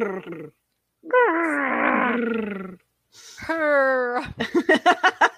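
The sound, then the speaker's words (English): A person makes a loud, drawn-out growling roar with their voice, imitating Chewbacca, in two long bursts followed by a quick series of short rhythmic grunts. “My little uh, my little Chewbacca noise.”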